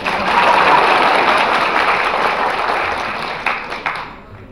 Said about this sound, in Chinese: 鼓掌！